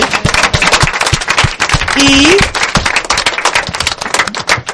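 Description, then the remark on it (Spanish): A group of people applauds themselves for a job well done, dense overlapping claps running steadily throughout, with a brief whistle or cheer rising near the middle. “Os voy a dar una, nos damos un aplauso, que lo hemos hecho muy bien, ¿vale?”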